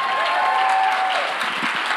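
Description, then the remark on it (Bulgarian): An audience claps steadily, a dense wash of many hands at a constant, fairly loud level throughout, with no voices rising above the applause. “Той е смисъла на вашето ръкопляскане в момента.”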